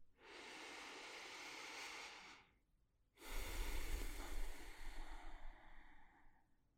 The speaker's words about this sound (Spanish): Vamos a comenzar tomando una respiración profunda. Respira conmigo.